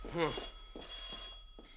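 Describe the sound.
A telephone bell rings steadily, its bright metallic tone sustained through the moment with a brief dip partway, while a voice briefly sounds at the start and soft thumps follow.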